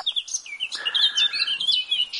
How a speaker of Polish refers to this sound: na przykład pokrzewka ogrodowa. Wywija mazurki, kujawiaki, no po prostu do złudzenia. Proszę kiedyś posłuchać, czy pokrzewka uwijająca się wśród krzewów nie śpiewa właśnie w tych rytmach. Pokrzewka ogrodowa.